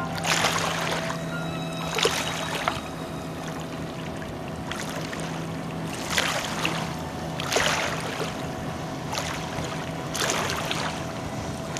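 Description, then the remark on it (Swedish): Engines of large plastic motorboats drone steadily across the open sea, fairly distant, approaching from all directions out at the edge of the archipelago off a beach in Sweden, with repeated rushing surges of waves and spray rising and falling every second or two. No voices. “De kommer från alla håll och kanter i stora plastbåtar.”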